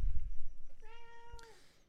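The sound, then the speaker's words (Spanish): A single drawn-out cat meow, clear, rising slightly then trailing off, with a low background rumble and no one talking. “El gato quiere, participar.”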